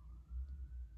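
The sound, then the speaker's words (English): Emergency vehicle sirens pass outside, heard from a bedroom: a faint wailing siren, its steady tone slowly rising over a low rumble of traffic, with no one speaking. “Um, I apologize for the sirens.”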